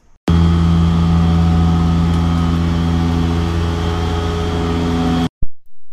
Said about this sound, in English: This is the sound of a cleaning truck outside Friedman's where I go for breakfast on 10th Avenue in the city once a week. It's 7:30 a.m. and I'm barely awake, and I have to experience this.